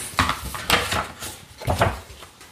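A book being opened partway through, to its third chapter: a few short, crisp bursts of cover and page handling, rustling and tapping unevenly over a couple of seconds with no one talking.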